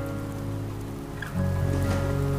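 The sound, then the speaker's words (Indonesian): Steady rain hisses throughout, a constant wash of noise over a low droning hum that grows slightly louder and fuller about halfway through. No voices can be heard. “Ditemani oleh suara hujan dan kebisingan dari beberapa orang sekitar.”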